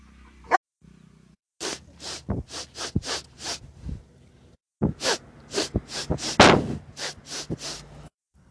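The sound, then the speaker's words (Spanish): A dog's footsteps: a steady series of soft, crisp taps in two runs separated by a short pause, moderately loud, with no voices. “el segundo es el caminado de un perro.”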